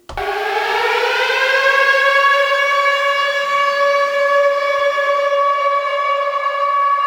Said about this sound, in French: Vas-y, bah, j'envoie la... la sirène de confinement et on, on commence, d'accord C'est parti.